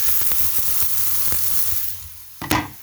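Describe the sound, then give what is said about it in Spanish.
Onion sizzling as it heats in a hot pan while being stirred, a steady crackling hiss with scattered pops and light scraping, then a louder burst of sizzle near the end as something stirs or drops in. “Como ya está calentándose nuestra cebollita.”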